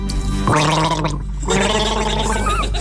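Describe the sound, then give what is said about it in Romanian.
Someone gargles a mouthful of water in two loud, bubbling bursts, a throaty rattling warble with a brief pause between them. “Ce înseamnă guriță de apă, da.”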